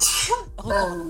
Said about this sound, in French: à tes souhaits. À tes souhaits.